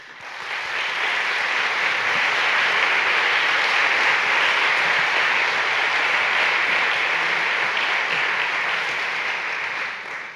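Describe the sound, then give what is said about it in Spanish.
Sustained afternoon audience applause at the Religious Freedom in the World award presentation of Aid to the Church in Need Spain, a dense wash of many hands clapping at steady loudness for about ten seconds, swelling in quickly and tapering slightly at the end, with no voices. “muchísimas gracias por el aplauso y por la asistencia tan nutrida que tenemos esta tarde.”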